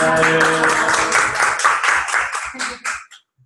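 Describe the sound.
A short burst of applause: steady, rhythmic clapping of roughly a dozen quick claps, fairly loud, with a voice briefly audible at the start before the clapping trails off.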